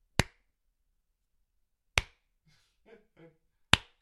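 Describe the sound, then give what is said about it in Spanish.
Three sharp, isolated hand claps spaced slowly almost two seconds apart, imitating a stiff, sparse round of Austrian-style applause, with a faint murmuring voice between the last two. “yo tengo un chiste es como el, aplauso europeo, el, aplauso austriaco, que es.”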